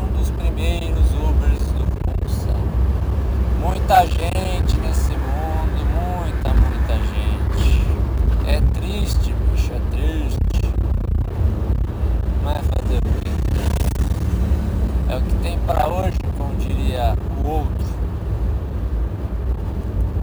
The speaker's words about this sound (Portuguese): Eu tô a 100. O cara tá a 120, 130. O limite da pista é 100. Ah, é muito tudo errado esse trânsito, cara.